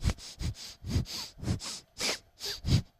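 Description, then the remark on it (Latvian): A run of about seven wet, congested snorts through a clogged nose, coming in a steady rhythm of roughly two per second, each a short rough burst with no talking. “Man ir tikai tas, tas puņ, lielais tas puņķis, kurš kā aizsit cieto uh, uh, ceļu.”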